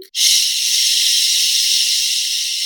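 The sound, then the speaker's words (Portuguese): A voice imitates a hiss, making a long, loud, steady shush like a drawn-out "shhh," starting abruptly and holding evenly for over two seconds with nothing else around it; the hiss was the sound played in a small, quiet, red padded corner of an installation. “O som era um chiado,”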